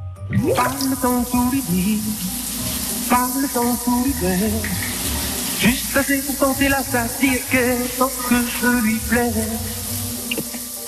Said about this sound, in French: c'est la douche. C'est la douche, c'est la douche